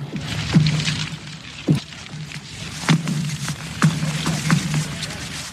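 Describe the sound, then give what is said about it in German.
Lake ice booming and cracking under tension beneath the feet of someone standing on the ice: several sharp, fairly loud cracks at irregular intervals, each trailing a brief low, twangy ring, with no voices. “Aber es, es knallt so dermaßen unter den Füßen, wenn man auf dem Eis steht.”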